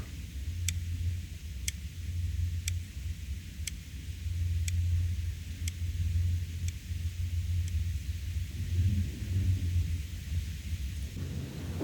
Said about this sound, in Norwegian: Ja, det lyden eh, her, eller lyden ned, det var jo faktisk eh, helt ekte opptak fra Oslo fengsel etter innlåsing. By night. Ja. By night.